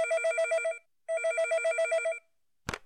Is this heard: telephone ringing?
yes